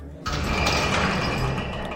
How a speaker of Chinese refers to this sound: 警员们好着急，他们赶紧把监牢的门锁打开，进去搜查，可是却怎么样都找不到消失的鬼影。